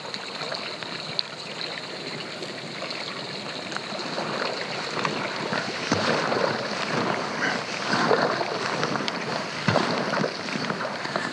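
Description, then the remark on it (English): Steady paddle strokes dip and pull through the calm water of Yellowstone Lake along a white cobble beach, with soft splashes and gentle lapping against a small boat, no whitecaps, and a slight breeze hissing faintly in the background. “It's calm. There's just a slight breeze, but the, the lake is laid down. There are no whitecaps. It's just easy paddling.”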